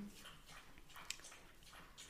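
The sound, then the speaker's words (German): A dog drinking water: a quick, steady run of soft wet slurps, fairly quiet, with no one talking. “mein Hund trinkt übrigens gerade Wasser, also falls man das, ich weiß nicht, ob man es in der Aufnahme hört,”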